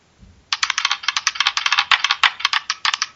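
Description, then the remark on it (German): A rapid, continuous rattle of dice tumbling and clattering, a tinny digital dice-roll effect from a phone app, playing for about three seconds after a brief quiet start, with no voices. “Der Würfel sagt nein.”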